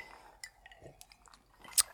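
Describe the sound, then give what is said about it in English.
Glasses clink together in a toast: a few soft, scattered taps and clicks lead up to one sharp, bright clink near the end, with no talking. “cheers on that.”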